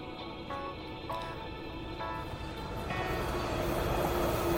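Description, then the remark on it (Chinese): An electric train rolls by with a steady, dense rumble and faint humming tones, growing a little louder toward the end; no voices are heard. “这样消磨时间，是因为他直觉最好不要和汤川坐同一班电车。”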